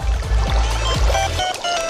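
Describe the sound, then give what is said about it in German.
Muffled, bubbly underwater gurgling of a goldfish under water, with low rumbling pulses and watery trickles, continuous and fairly loud for a couple of seconds with no voices. “Sie funktioniert auch unter Wasser. Bei diesem Goldfisch.”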